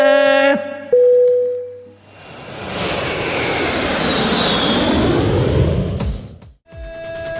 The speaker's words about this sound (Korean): 자, 그럼 우리 비행기 이륙합니다. 99년으로 갑니다.